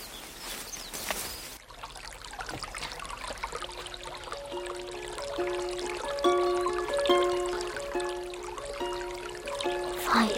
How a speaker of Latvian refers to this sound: avotā ūdens vienādi tā tek. Nu, Mums zināms, diena un naktis, ziema un vasara, tikai vasara ūdens augsts, bet ziema silts.